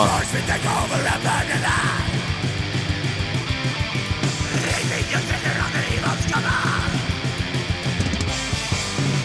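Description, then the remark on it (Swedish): A loud, dense metal track plays with fast, pounding drums driving a relentless beat beneath distorted guitars and harsh, yelled vocals, filling the whole stretch without pause. “det är ju trummor man blir glad av alltså.”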